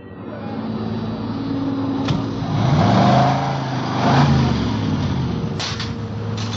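A car engine revs up and eases off twice in the middle at a station's 10-minute car wash, its rising and falling hum riding over a steady wash of spraying, hissing noise, with a couple of sharp clacks.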